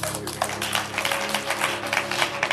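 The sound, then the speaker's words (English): A crowd claps their hands for God in a dense, uneven patter of sharp slaps that keeps going steadily throughout, with a low sustained hum underneath. “Clap your hands for God.”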